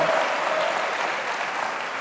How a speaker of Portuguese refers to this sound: Só quem recebe, aplauda o Senhor. E eu vou aplaudir também, porque eu quero isso de toda a tua vida, de todo o teu coração.